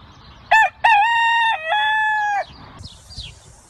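A rooster crows once, loud, a short opening note followed by a long drawn-out call, then fading into quiet background noise. No one speaks.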